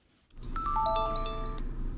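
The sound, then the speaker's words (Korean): A phone rings with a short, bright chiming melody of several quick stepped tones that ring on briefly, over a low steady background hum, with no one talking. “한 시간이 멀다 하고 전화를 거시면 어떡하라는 거야.”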